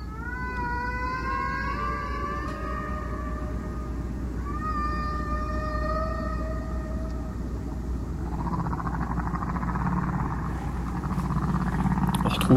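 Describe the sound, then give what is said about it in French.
A Hawaiian humpback whale sings alone: long, rising and sliding tonal moans with rich harmonics, one after another, over a steady low rumble of ocean noise, ending in a broader whooshing swell. “Un solo de baleine.”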